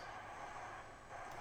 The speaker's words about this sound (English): You might hear a car in the background.